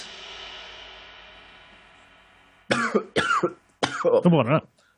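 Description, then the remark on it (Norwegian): A decaying hum fades out, then four sharp coughs burst in quick succession, loud and raspy, the last one longer and rougher. “Hørte du mye når jeg hosta, eller?”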